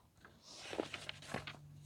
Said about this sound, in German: Ihr hört mich blättern. Äh, ihr hört mich blättern, ihr hört mich blättern.